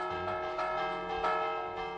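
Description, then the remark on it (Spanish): The church bells of Bastavales ring alone, with rich overlapping tones that sustain and hum, freshly struck every half second or so, steady and fairly loud throughout, with no voices. “Es el sonido de las campanas de Bastavales”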